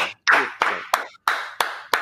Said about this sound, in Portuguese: Pô, vamos uma salva de palmas de novo aí pra esse casal.